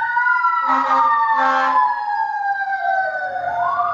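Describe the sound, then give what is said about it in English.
A loud fire truck siren wails steadily with two short horn blasts near the start, its pitch sliding downward as the truck comes down past a studio, with no talking over it. “Because, I mean, oh, there's another fire truck coming down past the studio here, so I don't know.”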